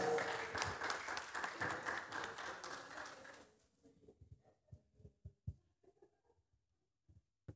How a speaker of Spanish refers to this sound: Gracias, un aplauso a la voluntaria.